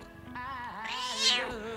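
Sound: cat meowing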